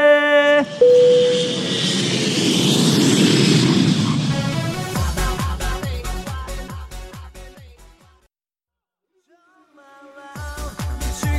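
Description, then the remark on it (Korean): An airplane takeoff effect for a flight to Canada: a loud jet engine roar builds and swells for several seconds, then gives way to punchy rhythmic music, which drops out briefly before returning. “자 그럼 우리 비행기 캐나다로 이륙합니다.”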